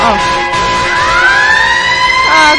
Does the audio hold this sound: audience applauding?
no